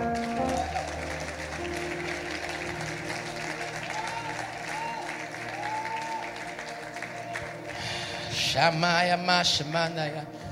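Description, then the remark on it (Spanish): A church audience applauds the Lord steadily for about ten seconds, a dense wash of clapping with voices calling out over it, swelling louder near the end with cheering. “Den un aplauso al Señor.”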